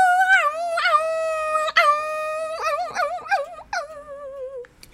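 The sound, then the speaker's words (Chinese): A wolf howls in pain after falling into a pot of scalding water, a loud run of high, wavering cries that rise, dip and wobble for about five seconds before trailing off, with no talking. “大野狼掉进那一锅滚烫的水，这下子是痛的不得了，只好赶快夹着尾巴匆匆的逃走了。”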